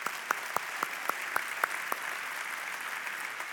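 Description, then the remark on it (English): A crowd of people clapping on Easter Sunday after "He is risen": a dense wash of applause with a few sharp louder claps standing out at a regular beat early on, then settling into an even patter. “Yep, you can clap at that.”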